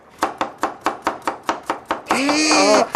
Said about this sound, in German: Das Einzige, was hier klappert, das ist mein Messer. Ich hack nämlich gerade Möhren.